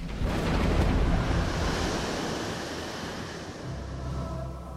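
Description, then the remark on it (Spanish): Rough sea waves surge and crash continuously while wind roars across the microphone, a loud, sustained stormy wash with a heavy rumble underneath and no voices. “Y entonces se levantó una tempestad en el mar como no se había visto otra igual.”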